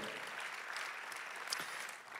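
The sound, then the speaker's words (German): An audience at a church service in a hall applauds God steadily, a dense patter of many hands clapping at an even, moderate level throughout, with no talking over it. “Lass uns doch diesem Gott einen Applaus geben, der mitten in unseren Alltag kommt.”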